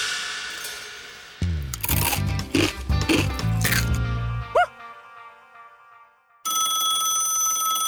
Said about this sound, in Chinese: 森林小镇警局内。响起一阵急促的电话铃声。